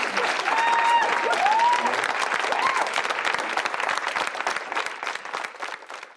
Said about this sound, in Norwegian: I går kveld ble Prablin Kaur og Vegard Vennesland klappet frem av sine egne i Oslo AUF.